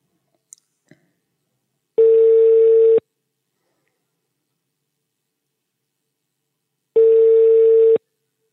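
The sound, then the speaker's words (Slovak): A couple of faint clicks, then the ringback tone of an outgoing phone call placed from a studio: two steady one-second beeps separated by a long pause, clear, with no voices. “Už volám.”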